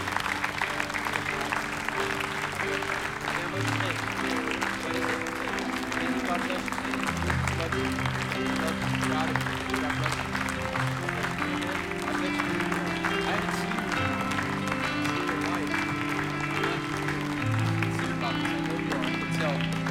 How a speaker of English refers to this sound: Keep clapping and encouraging them.